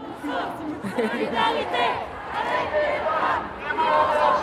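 A street demonstration crowd chants slogans, many voices shouting together in a dense, continuous mass with overlapping calls and no pauses, staying fairly loud throughout.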